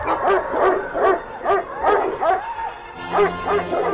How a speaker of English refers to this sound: There was a terrible baying outside and nine enormous dogs wearing brass studded collars came bounding into the barn.